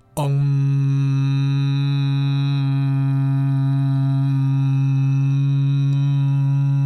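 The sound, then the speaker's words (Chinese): A voice hums one long, steady "weng" (嗡, the buzz of a little bee) as a demonstration of a seated meditation exercise: a loud, low, unwavering drone held for about six and a half seconds, with no other sounds. “这时候，请你帮我想一个字，就是小蜜蜂嗡嗡嗡的嗡。想象一下这个音频，我现在示范一次哦。”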